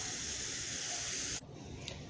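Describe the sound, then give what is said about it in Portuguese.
Onions and tomatoes sizzle steadily in a hot pan with butter, garlic, chives, coriander and beet leaves, a dense crackling hiss that suddenly softens partway through, then continues more quietly. No one speaks. “Agora acrescentei mais um pouco de verdura, coloquei alho coloquei cebolinha, coentro, folhas de beterraba e vou colocar ainda a cebola, de cebola e tomate. Consegue ouvir o barulho?”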